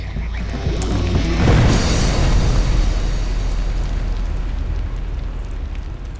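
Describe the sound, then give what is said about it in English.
A powerful explosion of ignited dynamite and powder booms out and rolls on as a long, low reverberating rumble echoing through a canyon, fading slowly over several seconds. No one speaks. “And the explosion just reverberated through that canyon.”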